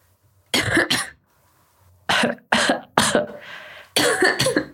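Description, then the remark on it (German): Several loud, deliberate coughs done as an exercise, coming in two short pairs and then a few more bursts, separated by brief quiet gaps, with no talking. “Gut, jetzt huste mal.”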